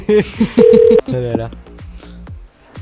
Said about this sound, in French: J'ai l'habitude d'appeler au Québec maintenant, donc ça devrait aller. Ah oui, ça sonne au, Canada, ça c'est sûr vu la sonnerie.